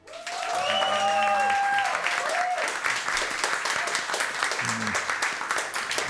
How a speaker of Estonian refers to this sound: Teile tuleb see aplaus, mida teevad need inimesed, kes kaheksateistkümnendal mail olid nii